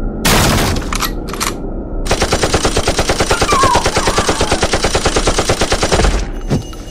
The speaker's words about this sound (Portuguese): Tiros. Rajadas de submetralhadoras queimaram o ambiente molhado de sangue, vísceras e medo, acertando cada um dos defuntos ambulantes presentes, vindas da porta direita.